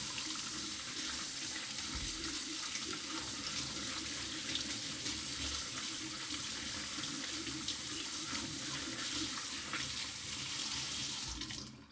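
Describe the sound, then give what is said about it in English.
Steady running water from a tap pours continuously into a sink, with a soft splashing texture as soaked almonds in a strainer are rinsed under the stream, until it cuts off at the end. “following morning, I pour the soaked almonds into a strainer and I rinse them under running water.”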